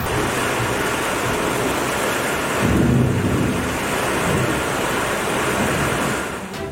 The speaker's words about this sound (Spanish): Una fuerte tormenta registrada el domingo en el municipio de Morelia provocó severas inundaciones en distintos puntos de la ciudad